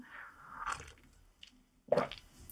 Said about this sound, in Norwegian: Det er blitt en sånn greie det nå med den kaffen min. Uh, med den kaffedrikkinga. Slurpe eller ikke slurpe. Uh, det er liksom noen der ute som eh, bare elsker det, som eh, syns det er kjempedeilig og koselig